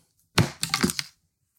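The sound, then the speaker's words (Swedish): A die is rolled to choose a pick, clattering across a hard surface in a quick burst of sharp clicks and rattles lasting under a second, then stops. “Jag tar fram en tärning. Ja. ja, men detta är så svårt här nu. Nu slår jag.”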